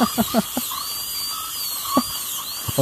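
A high-pitched dental drill whines steadily, its pitch wavering up and down, with a few short clinking taps in the background and no talking.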